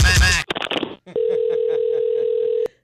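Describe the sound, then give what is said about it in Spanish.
A steady, continuous telephone line tone on an incoming call hums for about a second and a half, clear, following a brief burst of noisy clatter and rustling at the start. “Si tú me estás llamando de larga distancia ya, llamada por cobrar o eso.”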